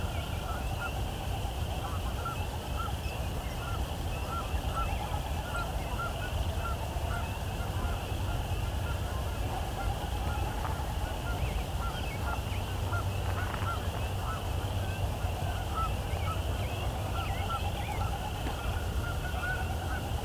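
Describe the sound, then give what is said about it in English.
A large flock of Canada geese honks continuously, many overlapping calls forming a steady chorus over low background rumble, with no one speaking. “Got a lot of Canada geese.”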